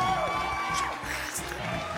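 A crowd claps and cheers in a dense, continuous wash of applause with scattered whoops and shouts, steady and fairly loud throughout, like a canned audience sound effect.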